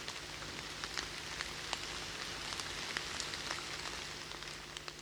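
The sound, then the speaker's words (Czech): Steady rain falls in a dense, even hiss, with scattered sharper drops pattering close by throughout. No voices, just continuous rainfall at a moderate, unchanging level. “A teprve tehdy se ozval ten správný zvuk. Zvuk deště.”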